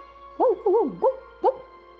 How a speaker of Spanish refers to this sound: Y lo propio sucedió con un perro que ladró